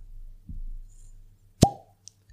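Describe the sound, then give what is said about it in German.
A single sharp cork pop from a bottle filled two weeks earlier, fairly loud, followed by a brief hollow ring, with quiet rustling before it and a small click after. “Perfekter Korken.”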